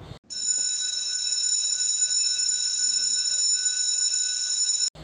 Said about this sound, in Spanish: así que siempre que doña Carola tocaba la campana,